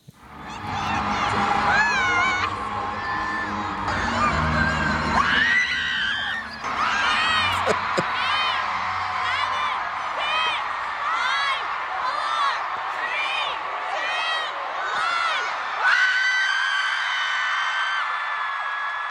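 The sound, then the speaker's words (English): A huge crowd screams continuously at the opening of a concert tour show as the lights dim, a dense, sustained roar of high-pitched shrieks and cheers that swells and wavers without a break for the whole stretch. “then the moment the lights dimmed and you start hearing the tour opening sounds.”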